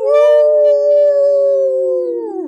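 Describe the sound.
A person lets out one loud wolf-style howl, holding a steady drawn-out 'woo' for a couple of seconds before the pitch sags and trails off at the end.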